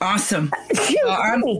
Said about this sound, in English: bless you.